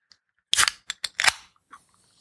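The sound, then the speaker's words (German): Breakfast packaging being torn open: a loud, sharp crinkling rip followed by a few shorter crackling snaps, then faint rustling as the wrapper settles. No one speaks. “Aber ich habe noch ein weiteres Geräusch hinzuzufügen, denn mir fällt gerade auf, ich habe versäumt, äh, mein Frühstück vorzeitig zu öffnen.”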